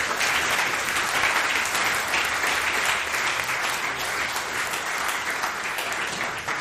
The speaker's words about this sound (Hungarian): egy, egy közös tapsot.